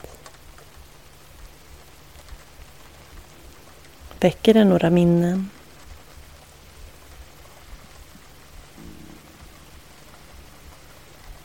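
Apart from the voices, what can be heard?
rain pattering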